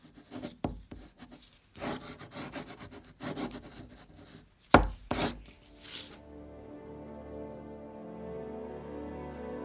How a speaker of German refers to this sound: Es ist vier Uhr morgens. König Ludwig III. unterschreibt das Dokument, das 738 Jahre wittelsbachische Herrschaft über Bayern besiegelt. Zuvor probt der Monarch seinen Namenszug etliche Male auf einem Stück Papier.